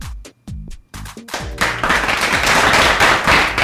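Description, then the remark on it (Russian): Applause starts as a handful of separate, loud claps, then quickly fills out into a thin, steady patter of clapping that runs to the end. No voices are heard. “Это были, я специально поставил жидкие аплодисменты.”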